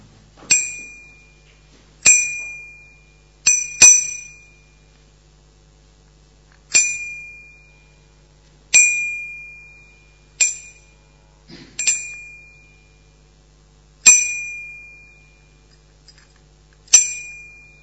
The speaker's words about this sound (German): Hier ist eine Glocke. Und ihr sollt jetzt zählen, wie oft die Glocke BIM macht. Und zwar von jetzt an.